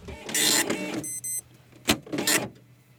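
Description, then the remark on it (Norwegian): A dot matrix printer prints a startup sequence file (autoexec.bat) sent as raw data through a parallel port, in short bursts of harsh, buzzing rasps, with a brief high whine and a sharp mechanical clack between passes. “det er liksom dot matrix, og det er jo små prikker som lager alle ja.”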